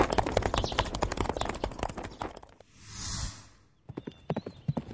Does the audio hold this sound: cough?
no